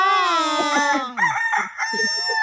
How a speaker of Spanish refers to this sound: Ya se puso celoso el gallo, ¿eh?